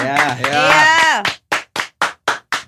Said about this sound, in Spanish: Un aplauso, un aplauso, bandita, por favor.